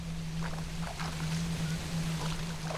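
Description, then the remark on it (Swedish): A rowboat is pushed into the water and rowed, with a few soft splashing oar strokes at an unhurried, irregular pace over a steady low hum and continuous wash of water noise. “Vi puttade ner ekan i vattnet och jag började ro så snabbt jag kunde mot klotet.”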